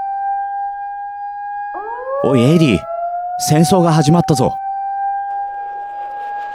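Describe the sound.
A sustained air raid siren holds a steady, wailing tone, swelling upward briefly before leveling off, while a man's voice shouts over it in the foreground.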